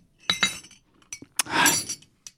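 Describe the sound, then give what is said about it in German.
A grandmother's glass dishes clink together in a few sharp, bright taps, followed by a longer jangling rattle of glass and one last faint clink. Moderately loud, with no talking. “Hör auf mit dem Klimpern.”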